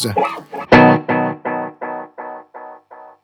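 A short burst of sound is caught by an echo effect that repeats it in evenly spaced copies, each one a little quieter and duller, trailing away over about three seconds.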